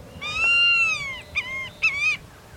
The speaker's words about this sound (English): species of birds reach the northern limit of their ranges, including this large bird of prey, the white tailed hawk.